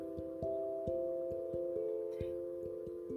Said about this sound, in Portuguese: E agora, continue desta forma, oscilando de um lado para o outro no ritmo do tic-tac do relógio.